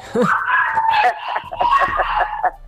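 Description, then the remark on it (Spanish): Dogs bark and yelp in rapid, overlapping bursts for a couple of seconds, fairly loud, with the excited, agitated sound of a scuffle. “Mira, ahí están ladrando, este, están protestando por lo que estoy diciendo.”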